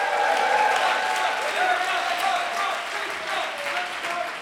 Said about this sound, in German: Nämlich Nummer eins, wir geben jetzt gleich allen dreien nacheinander einen richtig dicken Applaus.